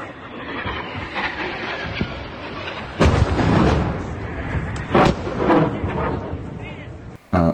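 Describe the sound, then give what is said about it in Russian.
Several heavy explosions as Ukrainian missiles strike the headquarters of the Russian Black Sea Fleet: around three or four powerful blasts a second or two apart boom out over a constant rumbling, crackling background, each impact loud and sharp before fading into the din. “Вы заметили, как же красиво, как красиво украинские ракеты залетают в штаб ЧФРФ.”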